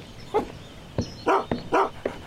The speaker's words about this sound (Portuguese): Pô, sai pra lá, cachorro. Sai, seu vira-lata.